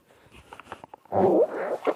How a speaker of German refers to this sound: Nasse Schuhe aus.